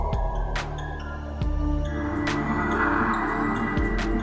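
An ominous, breathy sound effect swells slowly over a dark, sustained low drone, with soft airy noise rising midway and lingering, no voices present.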